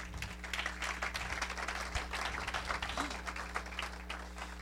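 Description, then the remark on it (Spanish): A crowd applauds the Lamb, Christ, at a preacher's call, many hands clapping in a dense, continuous patter over a low constant hum, with a few faint voices mixed in. “¿Puede darle un aplauso al Cordero?”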